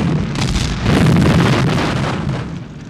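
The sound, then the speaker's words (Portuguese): A deep, booming explosion at a factory in Seveso, Italy, in 1976, which caused a dioxin cloud, swells into a sustained roaring rumble, loud and heavy in the low end, then slowly fades as the blast reverberates. No one speaks. “Depois disso, uma nuvem de dioxina em Seveso, na Itália, em 1976, que foi causada por uma explosão em uma fábrica.”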